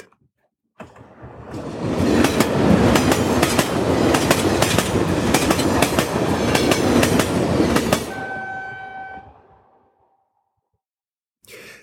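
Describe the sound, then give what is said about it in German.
An Intercity train to Frankfurt rumbles loudly along the rails with repeated rhythmic clacks over the track joints, then slows and fades with a brief high squeal of wheels before falling quiet. “Der Zug hat es ja in sich, dass man gemütlich kann zusammensitzen, noch ein bisschen pläudeln, Ideen austauschen, die Listing nochmal studieren.”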